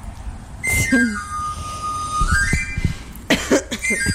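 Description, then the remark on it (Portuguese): A knife grinder's panpipe whistle plays one clear sliding run of notes, rising and then falling for about three seconds, with short coughs or throat noises before and after. “Isto é mesmo uma gaita de amulador.”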